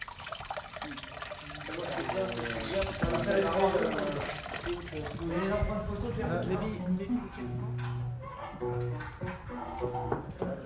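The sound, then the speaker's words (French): Wine trickles and splashes as it is poured into glasses, a steady gurgling stream of liquid running under overlapping voices that talk throughout. “alors qu'est-ce qu'on va faire là ben, euh, remplir des verres.”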